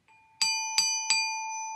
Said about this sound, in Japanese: この音ですねラの音ですねはい、はいえっ、ー、とでまあ今の音がグロッケンシュピールの音なんですけど、えーと、とこれもオーケストラで使われてオーケストラのパーカッションで使う楽器で単体で使うことは多分ほとんどなくて